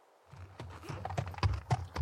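A horse trots across the countryside in a steady clip-clop rhythm, the hollow knocks growing more distinct, with no voices over them.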